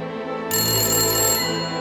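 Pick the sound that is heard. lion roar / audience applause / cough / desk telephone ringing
desk telephone ringing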